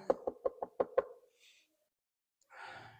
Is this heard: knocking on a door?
yes